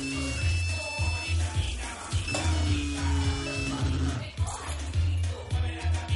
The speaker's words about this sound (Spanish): En casa de Zulema, un móvil vibra desplazándose por el borde de una mesa de madera. Se detiene cuando está a punto de caer.